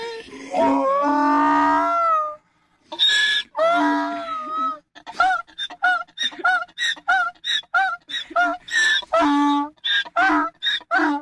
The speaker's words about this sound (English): The dog, the, the doggone donkey starts crying. The oh. doggone donkey gets so stinking excited it starts crying.